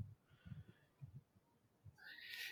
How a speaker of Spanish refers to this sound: Eh, estoy, aquí eh, debatiendo con el gato de que deje el micrófono, ¿vale?